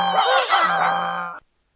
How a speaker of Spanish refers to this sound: A una señal, todos comenzaron su música. El burro rebuznaba, el perro ladraba, el gato maullaba y el gallo cantaba.